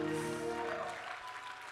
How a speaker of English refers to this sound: Come on and clap your hands to the Lord one more time.